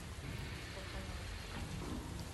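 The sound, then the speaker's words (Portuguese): Steady rain pours down in a dense, even hiss, with a low rumbling undertone and no voices. It holds at a constant, moderately soft level throughout. “Me dê razões para ficar em pé, parado, enquanto a chuva cai.”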